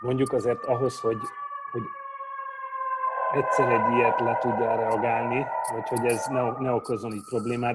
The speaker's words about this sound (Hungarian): Bocsánat, a háttér zaj pillanatra engem is megzavart most. Tehát a ez a mentő? Az, igen, el, elég igen, nálunk volt. hallatszott.